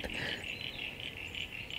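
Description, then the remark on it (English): A Crinia parasignifera frog's creaking call repeats in quick, slightly pulsing bursts, forming a steady high rasp that carries through the whole moment at moderate loudness, with no voices over it. “Yeah, that's him, and that's uh, Crinia parasignifera like a creaky frog or something, i will call him that.”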